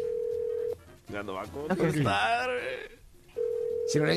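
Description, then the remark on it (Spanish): A telephone line rings after redialing a call to a woman staying at a hotel: a steady, mid-pitched ringback tone sounds, pauses while people talk over the silence, then sounds again at the end. “¡Órale, le marcamos otra vez! Otra vez, otra vez.”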